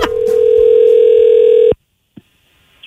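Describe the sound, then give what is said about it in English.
A phone ringback tone of an outgoing call, one loud, steady electronic tone lasting under two seconds, then cutting off into quiet broken by a brief click and a faint tone returning at the end. “I'm going to call him from his cell phone provider and offer him a shocking new solution to those unwanted calls.”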